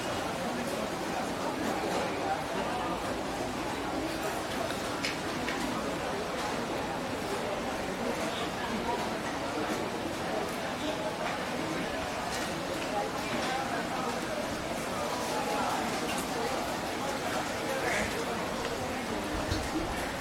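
Busy hawker centre food court ambience in Singapore: a steady wash of overlapping crowd chatter with frequent sharp clinks and clatters of dishes and utensils scattered throughout, no single voice standing out.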